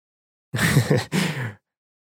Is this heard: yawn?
yes